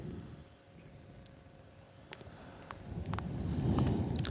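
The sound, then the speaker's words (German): Home-brewed, bottle-conditioned beer is poured carefully into a glass to avoid taking the sediment along. A soft gurgling stream swells and grows louder toward the end, with a few small clinks and drips. No one speaks. “Das heißt, ich bin jetzt auch vorsichtig beim Einschenken, um den Bodensatz nicht mitzunehmen.”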